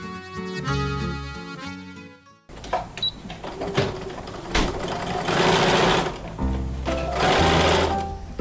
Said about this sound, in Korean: 재봉틀 소리가 들려오는 이곳.